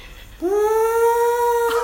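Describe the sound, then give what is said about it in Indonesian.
A voice imitates the straining cooling fan of a MacBook with one steady, whining hum that rises slightly in pitch and holds for over a second, loud and alone, with no words. “Bunyinya kayak gitu kipasnya.”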